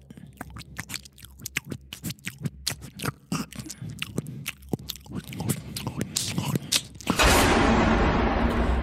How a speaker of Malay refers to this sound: macam ada sesuatu sedang mengunyah ya dia sedang mengunyah sesuatu. Saya dengar kuat capuan bunyi dia